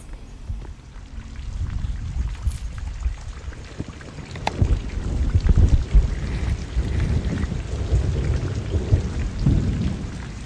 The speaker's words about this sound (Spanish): Pero comienza a llover. Estos días son de apretar el paso.